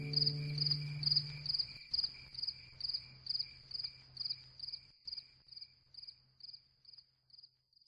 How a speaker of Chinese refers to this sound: 因为我住在一楼的关系，其实每次我戴上耳麦监听的时候，也能听到小区绿化的假山流水当中各种蛙声与蝉鸣。